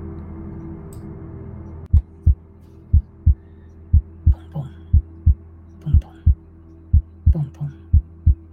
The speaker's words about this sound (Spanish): Es lo único que escuchas. Los latidos de tu corazón que parecen resonar en estos túneles por los que más o menos puedes ver.